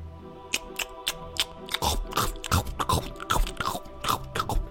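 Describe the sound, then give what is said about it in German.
Wet smacking and chewing noises, an irregular run of sticky clicks and mouth sounds that grows busier and louder after the first second, with no talking. “Und äh, laute Schmatzgeräusche und Essensgeräusche.”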